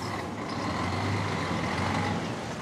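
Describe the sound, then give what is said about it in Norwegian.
A large diesel engine of a rail-replacement bus running instead of trains this summer rumbles steadily with a low droning hum and broad mechanical noise, holding an even loudness throughout, with no voices. “Og som NRK meldte i går, det blir en dobling av buss for tog denne sommeren.”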